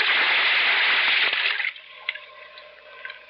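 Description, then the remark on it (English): A loud rushing splash of water as a scuba diver with an air tank, face mask and mouthpiece dives into deep water, fading after a second and a half into muffled underwater bubbling and faint gurgles. “Then I tested the free flow of air from my tank and dove.”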